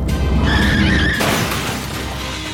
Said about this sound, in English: But Toad didn't stop, and finally he crashed the car into a tree.